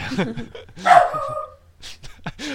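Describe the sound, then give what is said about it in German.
A dog barks, a short loud bark standing out in the middle, with a few quieter yips around it while people talk and laugh. “muss selbst der Hund bellen.”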